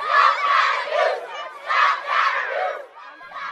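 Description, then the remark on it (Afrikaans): A group of children chants and shouts together in loud, rhythmic bursts in Eldorado Park, their voices rising and falling in repeated phrases like a protest crowd, steady throughout. “En ouers hulle op die ergste voorberei, laat die kinders van Eldorado Park ook hulle stemme hoor.”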